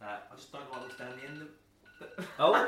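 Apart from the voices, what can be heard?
alarm going off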